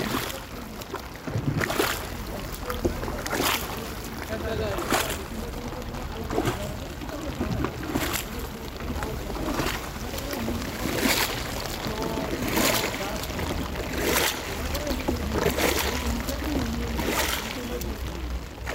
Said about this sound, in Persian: ولی برای رسیدن بهشون باید سوار شیکارا بشید شیکارا یه قایقای پاروییه که روی سطح دریاچه حرکت میکنه و آدما رو جابجا جا میکنه یه قایقای خیلی باریک که تعداد کمی آدمم توش جا میشن البته مدلای مختلف داره